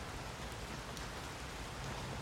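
Steady drizzling rain patters continuously on a surface, a soft, even hiss of fine drops with no voices or other sounds, fairly quiet throughout, falling on a football game between the Green Bay Packers and the Hoboken Jets in Hoboken, New Jersey.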